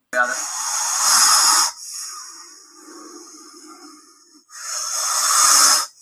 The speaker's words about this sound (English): And this crazy guy found a King Cobra out in the wild was like, I'm just going to pick it up and show you guys the noise it makes because I'm going to make it angry. So he did that.